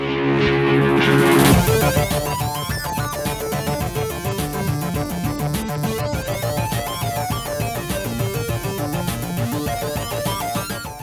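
A busy, upbeat video game soundtrack plays loudly and steadily, dense layered synth melodies over a driving beat, opening with a brief sustained chord before the full arrangement kicks in.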